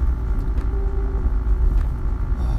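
Steady low rumble of a car moving along a road in light traffic, heard from inside the cabin, with a constant droning hum and faint road noise and no voices.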